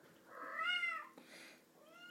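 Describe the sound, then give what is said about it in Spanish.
A female cat meows to other cats in a drawn-out, rising-and-falling call, followed by a softer second meow and the start of a third, fairly quiet with no talking. “Y ahora mi gata le está hablando a los demás gatos.”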